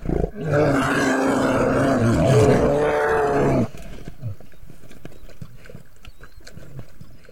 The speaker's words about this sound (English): So here's the sound of a grizzly bear feeding on a carcass, maybe an elk carcass.